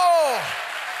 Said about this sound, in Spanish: ¿Cuántos le dan un fuerte aplauso a esa palabra? Fuerte ese aplauso.